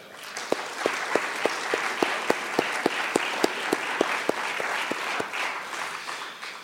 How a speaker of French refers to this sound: Ces, ces personnes bénévoles, j'aimerais qu'on puisse, en votre nom, les féliciter, mais surtout les applaudir parce qu'elles font un grand travail.